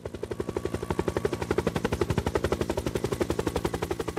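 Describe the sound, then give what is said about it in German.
A helicopter flies in the Swiss mountains, carrying a crate of beer up to 1500 metres altitude, its rotor blades producing a rapid, steady chopping thud that pulses evenly throughout, loud and uninterrupted with no voices. “Heute muss der Kasten Pilz auf 1500 Meter Höhe mit dem Helikopter hochtransportiert und kaltgestellt werden”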